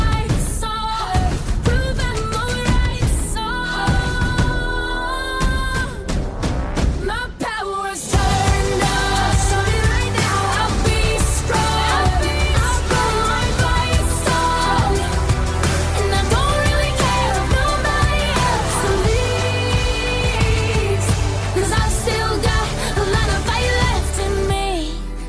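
A pop song plays on Access Radio 104.4 FM at full volume with steady beat, bass and layered instruments, a brief drop near the middle before the full arrangement kicks back in strongly.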